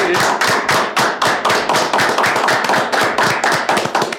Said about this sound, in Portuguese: E conhecendo a tua história sabendo quem você é, eu acho que você merece uma salva de palmas.